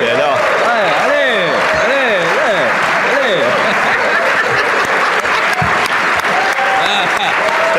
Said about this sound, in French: Il faut l'applaudir!